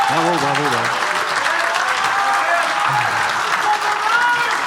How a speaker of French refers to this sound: on vous applaudit, applaudissez-les, applaudissez On vous applaudit, tout le monde, merci.